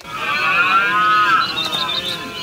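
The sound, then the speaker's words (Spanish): A red deer stag bellows during the rut in a long, rough, drawn-out roar that fills the moment, loud, with no talking over it. “Mira, mira qué contentos se han puesto los ciervos al escuchar tantas palabras sobre berrea.”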